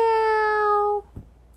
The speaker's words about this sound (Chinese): 不过啊，当夜幕笼罩的时候啊，米奇就会高兴的在他们家附近自由自在的走来走去。他就自己在那个小镇的夜晚里面，就会这样喵喵。